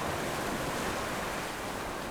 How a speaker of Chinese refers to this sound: 海浪的声音是一个很澎湃，从低音到高音。虽然我们的耳朵听得不是很清楚，但是用仪器录下来去分析，可以看到它的频谱是一个非常广域